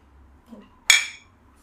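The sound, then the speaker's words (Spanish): A single bright clink of glasses tapped together in a toast, ringing briefly before fading, fairly loud against otherwise quiet surroundings. “Eh, salud por eso.”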